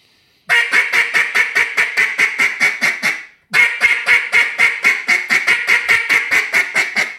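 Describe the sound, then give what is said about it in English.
A duck call blown as a bark in two fast, steady runs of sharp, clipped quacks, about a dozen each, separated by a brief pause; loud and with no talking. “I was also doing a bark.”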